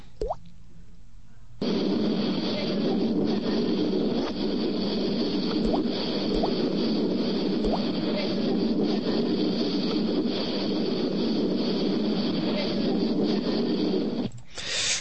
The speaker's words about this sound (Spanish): Vamos a escuchar una última, una última psicofonía que dice, ¿qué hace eh, la puerta cerrada?